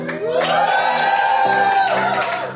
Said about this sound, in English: our listeners, we've got a packed out pub. Give us a cheer.